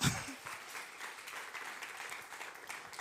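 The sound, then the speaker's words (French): A church audience claps steadily in a dense, continuous wash of applause, acclaiming God, with scattered cheers and voices mixed in, filling a reverberant church at moderate loudness throughout. “On a chanté tout à l'heure, il est ressuscité et quand on est ressuscité, qu'on est vivant, on vit devant le Seigneur, on fait un peu de bruit, on acclame le Seigneur, on est dans la joie parce que Dieu est vivant.”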